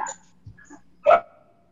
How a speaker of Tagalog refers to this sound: Uh, tapos meron naman aso na tumatahol. Kanino kaya yung aso na yan?